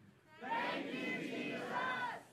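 A large crowd shouts "Thank you, Jesus" together in unison on a count of three, a loud sustained roar of many voices lasting about two seconds, swelling quickly and holding strong before fading.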